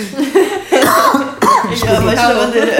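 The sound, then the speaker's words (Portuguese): A loud coughing fit after choking on saliva: several harsh, strained coughs come in quick succession, mixed with throaty, choking sounds and no speech. “Eu ia com a minha saliva. Eu tava, é que eu tava tentando me segurar aqui pra não pensar no eu não entendi.”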